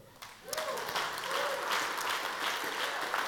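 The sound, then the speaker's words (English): A crowd breaks into steady applause, many hands clapping at once in a dense, continuous wash that swells quickly and holds at a moderate level for a few seconds. “You guys didn't I don't think you clapped, eh?”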